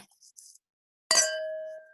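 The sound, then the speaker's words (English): Glasses of golden white wine clink together once in a toast, a bright ring whose clear tones hang and slowly fade for nearly a second after a brief quiet rustle. “You got yours poured. It smells really good. So I am going. I feel like be... it doesn't smell like a Sauvignon Blanc, but let's cheers.”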